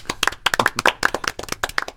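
applause

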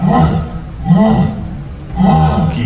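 jaguar roar

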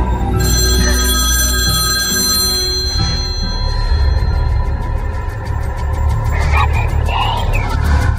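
telephone ringing

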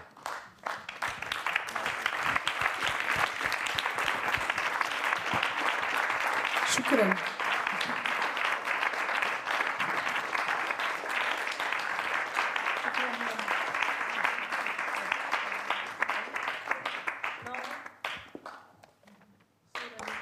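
warm audience applause

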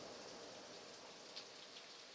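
rain falling

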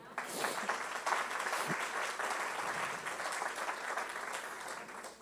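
audience applauding

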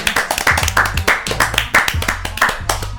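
clapping hands

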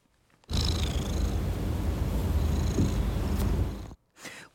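cat purring

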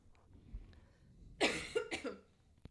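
coughing

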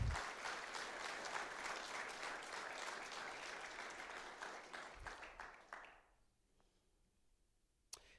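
applause

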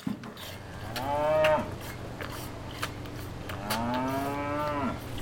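cattle mooing

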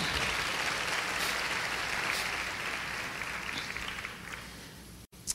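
audience applause

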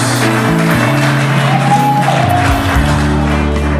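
audience clapping and cheering

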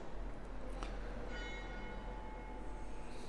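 church bell ringing

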